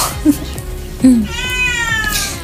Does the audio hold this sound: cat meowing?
yes